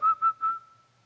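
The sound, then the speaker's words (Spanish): Someone whistles a short, breezy phrase of three quick bright notes at one steady pitch, clear, with the last note trailing away into quiet. “tengo vida, mire nada más, ando bien, y usted me dice que estoy un pecador, y usted, mire, estando chiflando.”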